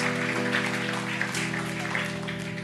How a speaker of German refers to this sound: Genau, und das ist auf jeden Fall ein Applaus wert.